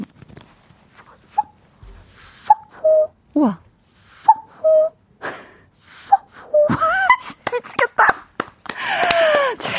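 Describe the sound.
A voice imitates a cuckoo, repeating breathy, falling two-note hoots several times, then trails off into louder airy, wheezy noises near the end.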